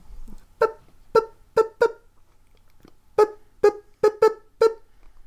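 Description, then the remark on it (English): A voice imitates high-pitched, bird-like squawking: four short honking squawks, a brief pause, then five more in a quick uneven rhythm, fairly loud with no talking. “As you start moving towards it, you start hearing this high pitched squawking sound.”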